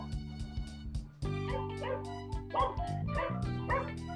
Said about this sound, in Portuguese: Cala a boca, cachorro, né?